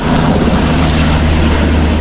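A loud, steady helicopter engine roar with a deep pulsing rotor thump, continuous throughout, with no voices, as a helicopter evacuates wounded Israeli soldiers from Gaza.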